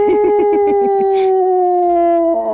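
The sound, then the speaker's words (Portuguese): A dog howls loudly: a long, sustained, slightly falling wail that starts with a few quick wavering pulses, then holds one steady tone. There is no talking. “Faial desatou a uivar e os uivos eram de estarrecer.”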